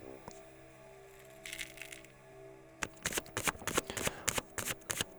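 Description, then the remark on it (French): A deck of cards is shuffled for a card reading in a quick burst of crisp riffling slaps, after a softer brush of cards being handled, with a steady low hum underneath and no talking. “On va à présent aller voir une carte qui va nous dire, nous inviter, t'inviter toi à abandonner quelque chose, à abandonner quelque chose qui ne t'aide pas.”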